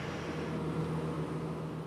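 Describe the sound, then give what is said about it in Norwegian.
A steady engine drone with a low hum from road traffic and heavy machinery at roadworks late in the evening on county road fv. 108 at Kråkerøy in Østfold, where four men direct traffic while a Veidekke crew lays asphalt; even loudness throughout, no voices. “På Kråkerøy i Østfold står fire mann og dirigerer trafikken, mens et arbeidslag fra veidekket legger asfalt på fv. 108.”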